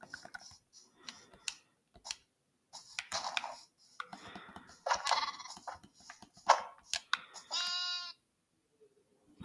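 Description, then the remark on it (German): A high, harmonic bleat rings out near the end, like a small lamb in a game, after a busy stretch of clicky, scraping in-game noises and taps. “Ah, doch, das war nämlich ein Babyschaf vorhin.”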